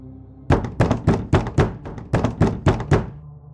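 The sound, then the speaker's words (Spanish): Someone knocks insistently on the door of a room, about ten sharp raps in quick, slightly uneven succession, loud and hollow, with no voices. “Antes de hacer algo más, un incesante golpeteo en la puerta rompió el silencio de mi habitación.”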